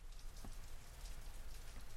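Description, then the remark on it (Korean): Steady, hissing water spray pattering continuously on a hard surface, like a shower running, as a man appears to be washing, with no voices over it. “다정의 등 뒤에서 물소리가 들렸다. 남자가 씻고 있는 듯했다.”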